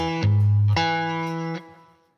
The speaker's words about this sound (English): You hear actually as I'm playing, I'm not used to this action. You can hear there's a little bit of uh, a little bit of fret buzz.